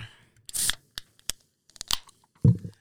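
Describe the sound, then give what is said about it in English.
A drink can is cracked open: a sharp metallic snap and short fizzing hiss, followed by a few small clicks and a soft thud at the end. No one speaks. “When you hear that can crack,”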